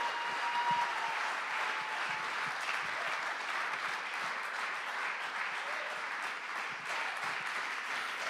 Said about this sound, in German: Gebt einen fetten Applaus. Come on. Woo!